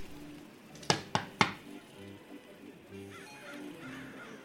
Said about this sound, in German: okay, du kannst äh, klopfen an der Hintertür. Ich klopfe an der Hintertür.